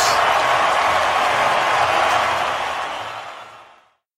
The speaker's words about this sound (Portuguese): O jogo parou por um momento para todos os presentes aplaudirem de pé Manning pelo feito histórico